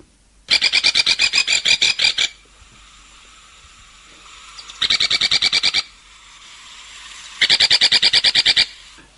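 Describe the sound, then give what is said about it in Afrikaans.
Three bursts of a cardinal woodpecker's call in Waverley, each a quick, high, rasping rattle of repeated notes, loud, separated by short pauses with no talking. “Die eerste een wat hy opmerk nou is die kardinaalspeg.”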